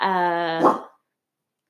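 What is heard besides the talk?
dog vocalizing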